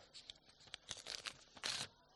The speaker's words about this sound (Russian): мы просто вырываем одну страницу.